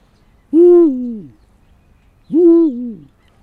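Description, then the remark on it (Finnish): Two deep, drawn-out hoots imitating a Eurasian eagle-owl, voiced in falsetto as low as possible, each under a second and separated by a pause of about a second, loud against quiet background noise. “Eli huuhka ja viirupöllö, niin ne, ne tulee, jos ottaa vaikka viirupöllö ensin, niin ja huuhkaa vastaavalla tavalla.”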